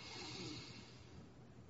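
A long, steady deep breath drawn in during a guided breathing exercise, a soft airy rush that holds evenly for nearly two seconds with no talking.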